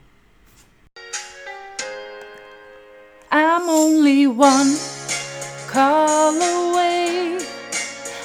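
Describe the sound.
A woman sings a pop melody fairly loud, entering after a few seconds of plain keyboard chords, her sustained notes carrying light vibrato over the accompaniment.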